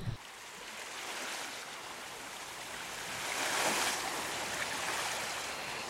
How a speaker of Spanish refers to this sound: Y en esta aventura, a orillas del mar